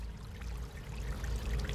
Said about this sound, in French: Ce que vous entendez n'est pas un ruisseau d'eau claire, mais un cocktail blanchâtre de ciment et de microfibres plastiques qui se déverse en continu dans la Seine. pour moi, c'est un scandale écologique.